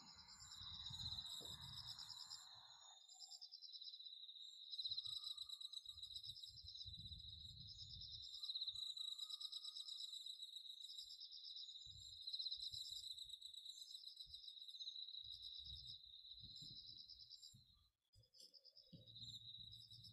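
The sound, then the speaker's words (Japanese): Bell crickets, autumn insects, chirp in a steady, high-pitched trill that rises and falls in rhythmic pulses throughout, with faint low rustles and thumps underneath and no voices. “そして秋の虫の音を聞いてください。”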